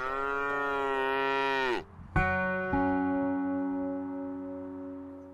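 A cow moos loudly, a long lowing call that sags in pitch at its end, then after a brief pause a second sustained moo that slowly fades out.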